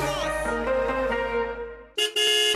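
Loud car horns blare in traffic in a dense, sustained chorus of honking, fading briefly before another sharp burst of horns cuts back in, like a jammed street.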